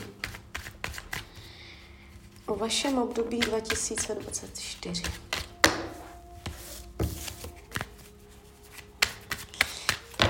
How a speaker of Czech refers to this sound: A já už se dívám na vaši fotku, míchám u toho karty a my se teda podíváme, co nám Tarot poví